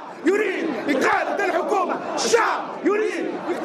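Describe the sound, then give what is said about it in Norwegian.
A large protest crowd of the Tunisian revolution shouts and chants in unison, many voices rising and falling in loud, rhythmic bursts, dense and continuous throughout. “Dette er lyden av den tunisiske revolusjonen.”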